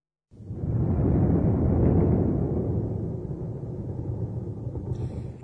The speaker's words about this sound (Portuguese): Esse é o som de um trovão, não é? Em japonês, esse som é descrito assim: gorogoro.